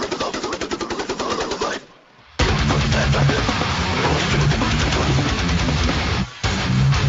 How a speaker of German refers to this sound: klingt halt wie Death Metal.